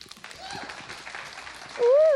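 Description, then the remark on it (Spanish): Steady applause from a crowd for a performer being introduced on stage, a dense crackle of many hands with voices mixed in, ending in a loud rising-and-falling whistle over the clapping. “No, hombre, el aplauso es para ella, me dijo señorita.”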